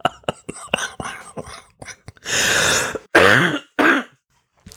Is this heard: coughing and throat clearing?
yes